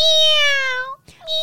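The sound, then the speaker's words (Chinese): A person imitates a newborn kitten's meow, a long, high, thin mew that slowly drops in pitch, then a short gap and the start of a second mew. “对，那听众朋友可以试试看呐，因为学那个小猫叫 怎么叫？ 小猫刚出生的时候是喵”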